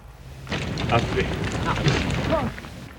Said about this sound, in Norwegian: Det vi hører sprake i bakgrunnen her, det er den siste av plakatene oppe i Stilla som nå brenner.